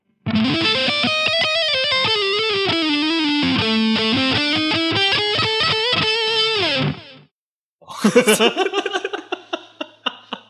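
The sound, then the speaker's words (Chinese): A loud distorted electric guitar solo: a sustained, bending lead line runs for about seven seconds, breaks off briefly, then returns as a burst of choppy, quickly decaying notes. “我如果如果那个连续够长，我可以弹一段 solo。”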